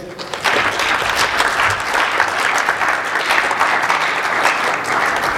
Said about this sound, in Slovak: Ďakujeme pekne, poprosíme potlesk.